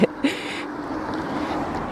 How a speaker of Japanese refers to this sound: ちょっと車がうるさくてすみません。